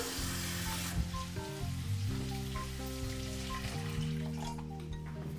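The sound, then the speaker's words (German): About half a litre of water is poured into a hot pan of soup base seasoned with a stock cube, salt, pepper and dried parsley and sizzles loudly, a steady crackling hiss that carries on for several seconds with a low rumbling bubbling beneath it. Nobody speaks. “Jetzt mit Wasser aufgießen.”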